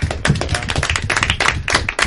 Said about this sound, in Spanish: pues un aplauso para el empresario que invierte aquí.